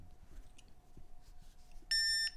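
A single short electronic beep from a battery pack, confirming an iPhone is correctly positioned on it for charging: a bright, steady high-pitched tone lasting about a third of a second, rising clearly above a low background hum near the end.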